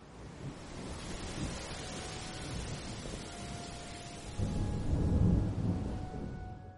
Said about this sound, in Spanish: Solo se oían el mar y el ruido de los pinares azuzados por la tormenta.